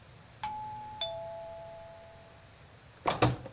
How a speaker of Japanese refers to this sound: 俺は少し緊張した面持ちで正面玄関の呼び鈴を押した